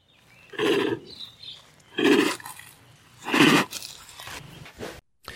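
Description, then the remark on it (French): A snow leopard's friendly chuffing (prusten), a sound made in the larynx and passed through the nose: three breathy nasal puffs at roughly even intervals, fairly loud, with a faint quieter snort near the end and no voices. “Il s'agit d'un ouf nasal. Les Anglais disent chuff, qui est un verbe en forme d'onomatopée.”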